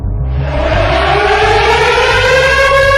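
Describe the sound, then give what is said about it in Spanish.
A loud air raid siren in Ukraine, sounded when bombardments begin, winds up, its wail climbing slowly and steadily in pitch, with a low, pulsing rumble running beneath it and no voices. “Este es el sonido al que se han tenido que acostumbrar los ucranianos cada vez que inician los bombardeos.”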